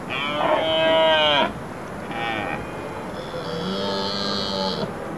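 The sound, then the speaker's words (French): Three deep, throaty bellows from a red deer stag in rut: a loud, drawn-out roar, a short grunt, then a longer, slightly fainter groaning call, with no voices. “Et oui, c'est ce qu'on appelle le brame du cerf.”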